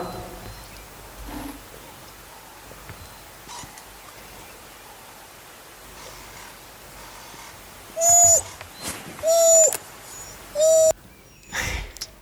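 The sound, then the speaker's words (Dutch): Doves coo three times in a row in Namibia or Botswana, fairly loud, each a short hollow call, breaking a long stretch of quiet outdoor ambience. “Ehm, dat zijn de duifjes.”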